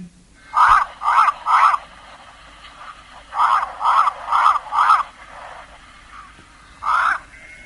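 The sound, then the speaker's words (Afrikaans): A Cape crow gives a series of harsh, nasal caws in short bursts: three quick calls, a pause, then four more, and one last call after a gap, clear. “Die gewone witborskraai, dan die Kaapse kraai,”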